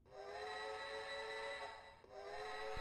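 A 1986 toy model train plays a steady, reedy steam-whistle sound effect that holds for nearly three seconds, broken by one brief dip before it resumes. It is fairly loud, with no voices.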